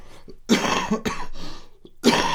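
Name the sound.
cough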